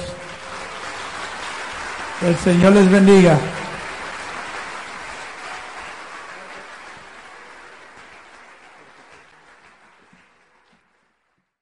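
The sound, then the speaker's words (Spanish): Sustained applause from a large crowd applauding God, with a man's voice briefly speaking over it before the clapping gradually fades away to silence. “Vamos a darle un fuerte aplauso a Dios.”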